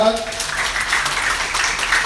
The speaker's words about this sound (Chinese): 这里呢，我想借助各位的掌声来感谢以上我想要感谢的人。